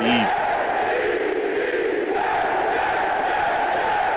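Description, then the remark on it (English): A studio audience claps and cheers in a loud, steady roar of applause and whoops that fills the whole stretch without letting up, with no one speaking over it. “But I need to let my studio audience know, slow down on the extra clapping.”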